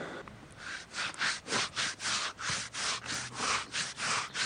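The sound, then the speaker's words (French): Steady, rhythmic brushing strokes through the coat of Sardane, a hoofed animal being groomed, about two per second, each a soft bristly swish of moderate loudness, with no voices. “Bon, moi pendant ce temps, je vais faire ta toilette.”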